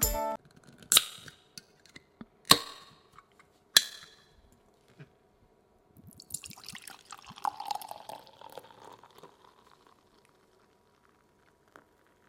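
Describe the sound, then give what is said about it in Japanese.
A carbonated drink, not beer, is opened and poured: a few sharp clicks and pops, then a crackling, hissing fizz that swells for several seconds and gradually dies away, with no one talking. “わあすごいビールみたいに聞こえたけどビールじゃないよ炭酸だよ”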